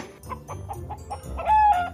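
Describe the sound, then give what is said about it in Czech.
Hens cluck in a rapid, irregular series of short calls, then a rooster crows loudly near the end, a sustained rising call over the continuing clucks. No voices. “Slepičky i kohou to na něj udíveně koukali a divili se.”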